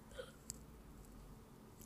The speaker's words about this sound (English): sorry, I had a burp. That was really cringy.